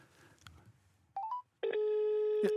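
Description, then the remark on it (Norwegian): Telephone line tones on a call to Oxford Street in England: a quick run of three short beeps stepping up in pitch, a brief silence, then a loud, steady electronic British ringing tone that holds to the end, with faint murmuring beforehand. “Fordi at i England så har de den der ringetonen som er sånn dut, dut.”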